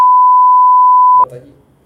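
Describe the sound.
A loud, steady censor bleep placed over a spoken name, a single pure tone held for over a second, cuts off abruptly as a man's voice continues talking right after it.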